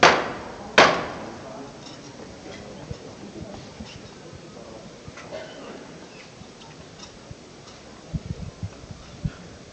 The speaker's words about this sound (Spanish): Se toca de nuevo el llamador.